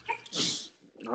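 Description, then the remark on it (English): A single sharp sneeze bursts out, a quick breathy blast that fades within a second as someone begins to speak again. “Uh, bless you.”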